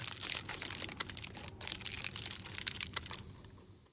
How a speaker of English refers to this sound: that feeling when you're, say, at the theatre and there's someone who's unwrapping a mint 20 seats away from you, and they might as well be doing it right inside your ear.